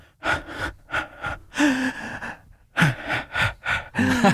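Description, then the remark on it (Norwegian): A voice imitates the rhythmic breathing pattern used while jogging, a steady series of short, forceful huffs and gasps in quick succession, fairly loud, with no speech. “Men jeg tenker jo, for vi svømmer kanskje fire tak og puste på den ene sida.”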